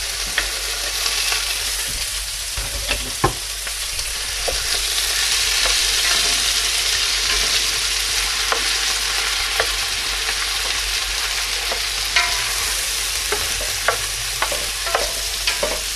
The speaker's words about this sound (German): So, das Ganze tun wir jetzt erstmal anbraten. Selbst wenn das richtig heiß ist, meistens zieht das Fleisch viel Wasser.